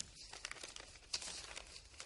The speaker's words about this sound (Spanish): En la cocina de la casa de los Schrader, Hank tiene los codos apoyados en la mesa y las manos en la cabeza. Luego revisa unos papeles.